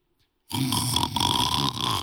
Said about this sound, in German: Nebendran schnarchelt irgendeiner, ein Hirt.